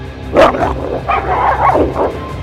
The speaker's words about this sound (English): The wolf let out a yelp as its body slammed against the library wall.